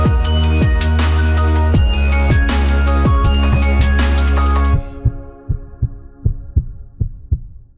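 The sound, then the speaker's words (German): A steady, thumping heartbeat pulses through a bright, dense musical jingle, then continues alone as the music cuts out, its low double beats clear and regular. “Herzschlag für ein gesundes Berufsleben.”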